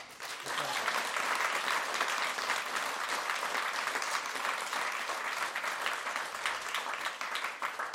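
An audience bursts into sustained applause, a dense, steady wash of many hands clapping that stays loud and even for several seconds without pause.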